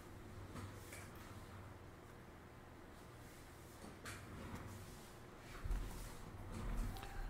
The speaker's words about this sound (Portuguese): Só um minutinho, deixa eu só fechar aqui a porta.